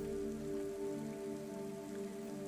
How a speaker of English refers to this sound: I follow him outside. It's raining.